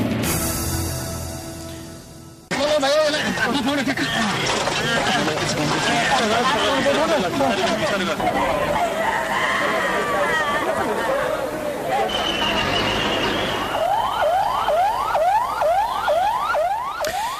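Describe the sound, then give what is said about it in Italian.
Loud, crowded street ambience in Kathmandu, Nepal, after it was devastated by an earthquake, with many voices talking and shouting at once, a wavering siren running through it, and a rapid series of rising whooping siren sweeps near the end. “Quelli che stiamo ascoltando sono i suoni, suoni a tratti confusi, a tratti anche disperati che si levano dalla capitale del Nepal, Kathmandu, devastata dal terremoto di sabato scorso e dalle successive scorse.”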